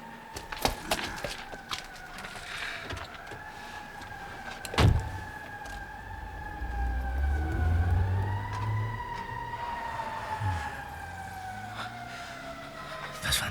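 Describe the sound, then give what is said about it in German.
A car pulls away as someone gets into a taxi: a sharp thump like a slammed door, then a low engine rumble that swells and rises in pitch, all under steady, high sustained tones that waver slightly. “Der falsche Peter ist wieder weggefahren und Zwirbelbart steigt in ein Taxi?”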